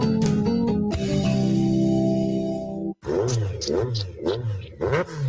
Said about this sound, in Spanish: ¡Fua! ¿Cómo suena esa moto?